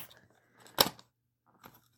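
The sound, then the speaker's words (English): The cap of a glossy, shiny red Loubicrown perfume vial pops off with a sharp click, followed a moment later by a softer second click, against a quiet background with no talking. “Okay, let me pop the top off.”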